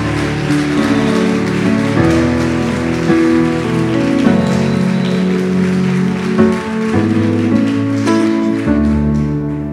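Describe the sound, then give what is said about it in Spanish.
A crowd at a Christian gathering claps loudly and continuously for about ten seconds, a dense, steady crackle of applause with sustained musical tones playing underneath and no talking. “Si va a aplaudir, hágalo fuerte, fuerte, porque usted puede ser parte de esa promesa.”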